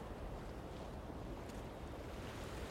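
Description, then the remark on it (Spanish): A soft, continuous wash of ocean surf on a private, secluded beach, fairly faint and steady with a gentle breezy hiss, and no voices. “Estaba deseando que aprovecharas la playa privada y aislada en la que estamos.”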